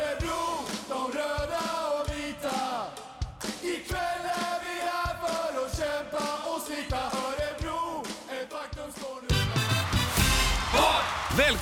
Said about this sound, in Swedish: välkommen till ett fullsatt Bern Arena där Örebro Hockey precis tagit ledningen och Örebro-publiken har ju som vanligt lyft taket. Vilken fart, vilken stämning, vilken hockey, vilken fest!